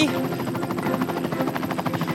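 A helicopter's rotor thumps in a steady, rapid rhythm, loud and close, with a constant engine drone underneath and no pauses across the short stretch.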